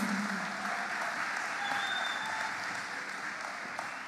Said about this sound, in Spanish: Les pedimos un aplauso para nuestras primeras cantoras. El escenario de ustedes.